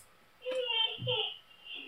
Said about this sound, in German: Oh, Babyphone.